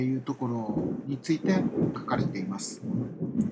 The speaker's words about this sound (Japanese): すいません、ちょっと後ろで雷がすごい鳴ってて申し訳ありません、え聞き取りづらいところもあるかと思いますけれども、ご容赦いただければ幸いです。